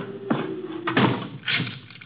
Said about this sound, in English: Quite a bolt you've got on that door. Yes, isn't it?